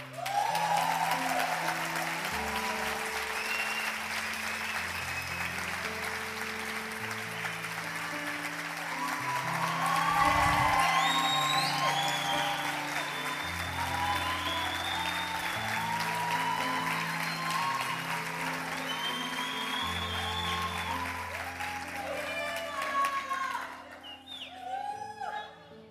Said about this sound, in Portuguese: Para você sair desse último lugar e sentar aqui na frente debaixo de uma salva de palmas.